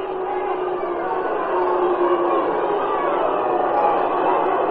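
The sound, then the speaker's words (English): A baseball crowd applauding and cheering as pitcher Satch is taken out of the game after three innings, a dense, steady roar of clapping and voices that holds loud and even for about five seconds, slightly swelling midway. “Well, when he comes out, you'll see quite a hand for him, or hear quite a hand for him, I'll tell you that.”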